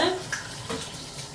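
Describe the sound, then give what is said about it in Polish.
Hot tap water runs in a steady, hissing stream as giblets (gizzards) are carefully rinsed beneath it, with a faint splashing texture that shifts slightly over the short moment. “Żołądki, jak wszystkie e, podroby, należy bardzo starannie wypłukać pod gorącą wodą.”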